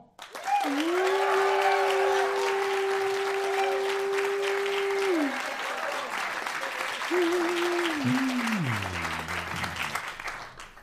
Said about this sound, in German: Also, jetzt nochmal euer Applaus für den dänischen Bong.